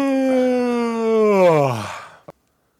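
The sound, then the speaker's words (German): A long, drawn-out yawn from one very tired person, voiced, starting steady then sliding down in pitch before trailing off, with a short click at the end. “Du hast ja gerade gegähnt, oder?”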